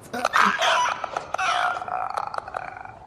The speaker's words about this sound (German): Und dann hört man nur noch das Schnattern und Geifern eines Wurmes, dessen Sabber auf dem Weg zu seinem Opfer einfriert und dann klirrend auf seinem Gesicht zerbirst